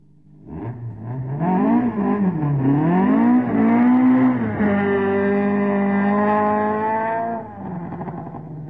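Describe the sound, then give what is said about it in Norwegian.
A senior-class race car engine revs up and down a few times, then holds a steady, loud buzzing drone for several seconds before cutting off abruptly. No voices. “Ja, det, du betaler ikke så veldig mye per hest, høres det ut som.”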